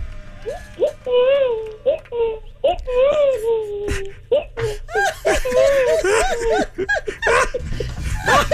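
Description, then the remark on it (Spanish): A toy doll's baby cry repeats in short, wavering, high-pitched wails, fairly loud, with laughter and noisy voices mixing in during the second half. “E, estos son los mismos bebés que venían en las muñecas.”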